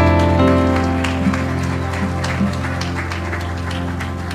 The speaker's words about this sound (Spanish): Esta tarde, un aplauso.